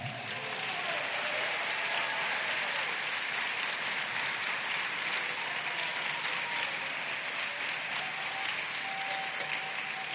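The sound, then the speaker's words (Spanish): An audience applauds the Lord steadily, a dense, even wash of many hands clapping at constant loudness for about ten seconds, with no voices standing out. “Si va a aplaudirle al Señor,”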